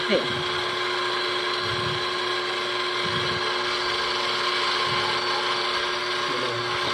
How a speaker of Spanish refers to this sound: En este caso, la mezcladora no llega al gancho bien abajo, así que vamos a quitarlo.